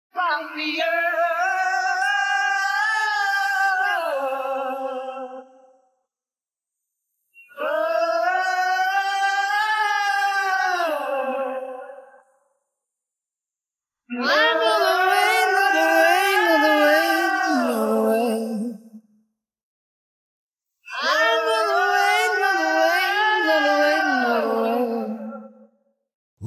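A haunting, wordless rock vocal refrain sung in four long, wavering phrases separated by short pauses, the voice loud and upfront with a heavy reverberant wash and no clear accompaniment.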